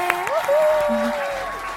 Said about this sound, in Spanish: Así que gracias, Corona, por apañar. Nuestro gentil auspiciador. Sí. Me encanta. Un aplauso para Corona. ¡Eh!